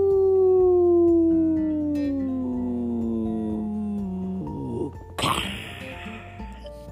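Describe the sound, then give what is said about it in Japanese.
A long, steadily falling whistle slides downward in pitch for about four seconds, then ends in a faint crash and clatter, like something landing far below, played by a sensor and sound device on an ordinary trash can, the 'World's Deepest Bin', when trash is thrown in. No one speaks. “い音がするんですよ。これがね、世界一深いゴミ箱なんですよ。”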